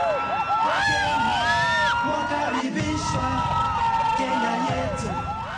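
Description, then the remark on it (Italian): A big crowd in Kenya cheers and sings traditional songs in welcome for Pope Francis, with high whoops and rising, swooping voices over a steady, loud roar that lasts the whole time. “Kenya ha riservato a Papa Francesco una grande accoglienza tra canti e danze tradizionali e notevoli misure di sicurezza.”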